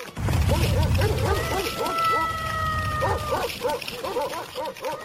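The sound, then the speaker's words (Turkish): A loud, chaotic chorus of many large dogs barking and yelping over one another as they rush out and attack a wolf, with a sustained howl-like tone rising through the middle of the din. “Çok sayıda iri köpek dışarıya fırlamış ve kurda saldırmış.”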